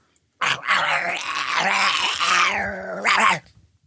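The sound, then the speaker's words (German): A dog, Bello, running after a ball kicked toward the street, growls loudly and continuously for about three seconds, a rough, low, rumbling snarl that opens and ends with sharper bark-like bursts. No one speaks. “Bello rannte hinterher wie ein wild gewordener Jagdhund.”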